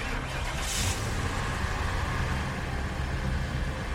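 A car engine drones steadily while driving, a continuous low rumble with road noise that stays level throughout, moderately loud, with no voices.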